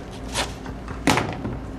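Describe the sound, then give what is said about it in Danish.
A heavy police detention cell door slams shut once with a sharp, loud impact, followed by a brief ringing decay over a low background rumble. “Inden celledøren smækkes i”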